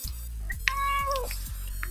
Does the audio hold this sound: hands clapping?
no